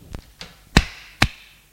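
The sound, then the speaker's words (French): A man slaps a woman: four sharp slaps land in quick succession, two softer ones followed by two loud, crisp smacks with a brief ringing tail, with no one speaking. “Il fait le geste de la gifler. Putain Il la gifle.”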